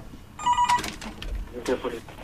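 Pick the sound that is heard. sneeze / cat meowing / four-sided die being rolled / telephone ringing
telephone ringing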